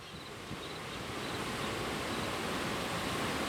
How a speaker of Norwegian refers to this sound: Snøsmelting i fjellet er i full gang. Elva som renner gjennom Sogndal sentrum, er stor og kraftig.